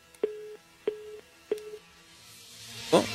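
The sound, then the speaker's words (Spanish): A dropped phone line gives three short, evenly spaced electronic tones, clear and steady, followed by a brief burst of rustling noise at the very end. No one speaks. “Se cortó. Otra vez la línea, la, ahí está la, el teléfono en cabina,”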